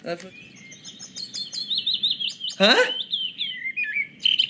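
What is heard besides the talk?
bird calls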